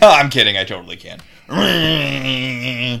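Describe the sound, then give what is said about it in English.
A brief spoken line and a short laugh, then a voice makes a sustained, strained groaning tone for about a second and a half, imitating the grinding noise of someone psychically interfacing, loud. “so, that was the sound of her psychically interfacing. Makes kind of a grinding noise.”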